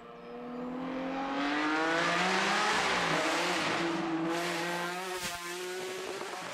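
The Bizzarini V12 engine of Lamborghini's first sports car model howls as it revs, its pitch climbing in a long sustained rise, loud, with a brief sharp shift near the end before it settles.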